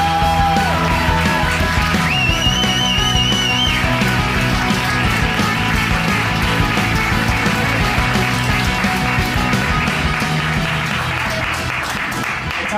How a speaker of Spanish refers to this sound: Pero bueno, aún con todo os voy a pedir un fortísimo aplauso